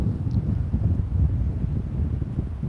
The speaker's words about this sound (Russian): Дует ветер все равно.